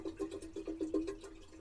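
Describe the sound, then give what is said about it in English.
Water runs steadily into a kettle on a boat, filled to make a cup of tea, with a faint hollow hum and a regular gurgling pulse, fairly quiet, with no one speaking. “Filling up the kettle.”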